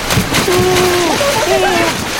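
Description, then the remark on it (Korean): Continuous splashing and sloshing of water as a crowd of rats plunges into a river, with a thin wavering melodic tone and a voice-like murmur running over it. “단체로 투신하고 있어.”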